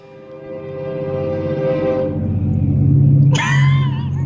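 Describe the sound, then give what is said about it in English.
A passing commuter train that runs by a house rumbles loudly and steadily while its horn blasts twice, a long sustained tone followed by a second, sliding blare as the train rolls by. No one speaks. “That's the train that runs by my house.”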